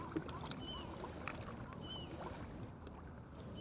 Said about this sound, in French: Je trouve ça très agréable, surtout sur les bords de la Garonne. On entend le clapotis de l'eau et, il fait relativement beau, c'est agréable.